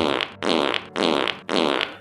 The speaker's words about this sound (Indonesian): Lalu bapak itu pergi begitu saja sambil mengeluarkan kentut di setiap langkahnya.